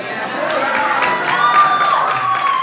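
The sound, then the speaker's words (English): A crowd claps and cheers in a steady, lively wash of noise, with scattered sharp claps standing out and a thin whistle-like tone sliding through partway. “Why are you clapping?”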